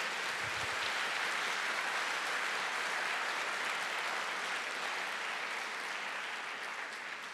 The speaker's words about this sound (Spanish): ¿Cuántos creen que esto es así? ¿Cuántos dicen amén? Dele fuerte aplauso a Jesucristo por eso.